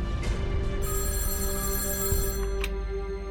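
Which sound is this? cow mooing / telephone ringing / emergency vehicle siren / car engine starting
telephone ringing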